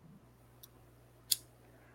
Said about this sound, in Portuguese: YouTube, já desmonetiza, só o barulho do isqueiro